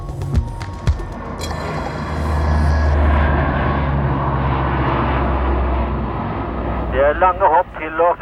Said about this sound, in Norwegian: fra Bardufoss gjør disse flyene som den siste uken har fløyet inn mannskaper og utstyr til manøveren Polar Ekspress.